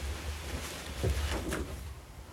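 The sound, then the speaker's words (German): A door is opened, with a few soft clunks and a brief scraping creak over a low background rumble. No one speaks. “Ich nehme mal erstmal die Tür jetzt.”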